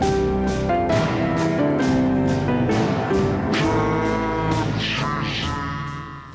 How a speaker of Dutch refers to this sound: Zodat hij zelf eh, de piano gewoon kon inspelen terwijl het ding op 15 inch draaide. Dus echt vertraagd. Dus luister maar even hoe hij eigenlijk, ik heb de, de tape even vertraagd, hoe hij de piano op de originele snelheid heeft ingespeeld.